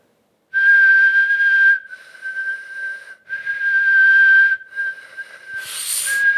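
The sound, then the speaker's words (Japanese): A person whistles a single steady, sustained pitch, whistling both while breathing out and while breathing in, holding it through several long breaths with brief breathy gaps between, fairly loud, ending in a hissy rush of air. “あのなんだろう肺活量の問題かなあの音がかすれたりしないでああ俺吸いもできるもん”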